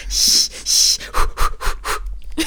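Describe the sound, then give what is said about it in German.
A person imitates panting with their voice: two long, breathy exhales followed by a quick run of short, rhythmic huffs, fairly loud, with no speech. “Und natürlich hecheln, hecheln.”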